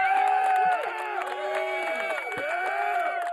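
A studio audience cheers and whoops loudly, a dense, sustained roar of many voices lasting a few seconds, with applause mixed in beneath the shouting.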